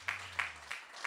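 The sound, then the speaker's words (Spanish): An audience applauds the Lord in steady rhythmic unison, four soft, evenly spaced claps about a third of a second apart, fairly quiet, with a low hum underneath for most of it. “Den aplauso al Señor.”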